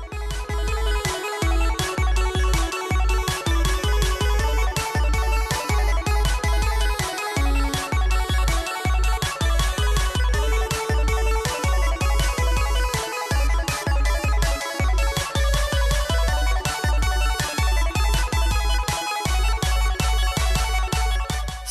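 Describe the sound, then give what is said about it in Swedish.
A bright, upbeat electronic intro jingle with a steady, punchy beat and chiming melodic notes, playing loudly on its own for about twenty seconds with no voices. “Vi rullar gingen.”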